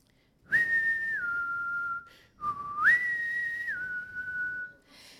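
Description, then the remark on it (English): A father whistles the family's two-part call for his child to come home, twice, each starting with a rising note that holds steady and then drops to a lower sustained tone, clear and fairly loud with no talking. “And I'd hear my dad's family whistle.”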